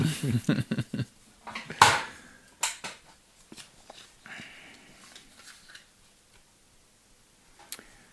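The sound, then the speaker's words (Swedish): A spinning wheel being spun by a person clicks rapidly and sharply, the ticks spacing out as it slows, ending with a few scattered, quieter clicks and a final tick. “Jag måste snurra.”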